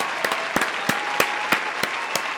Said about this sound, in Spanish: aquí en Fantasy Deporte, también queremos darle esos aplausos.